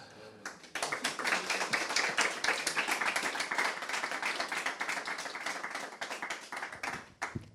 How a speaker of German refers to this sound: Ganz herzlichen Dank, Frau Staatsrätin, dass Sie unsere Einladung angenommen haben und bei uns zu Gast waren. Vielleicht können wir unseren Dank mit einem kleinen Applaus zum Ausdruck bringen.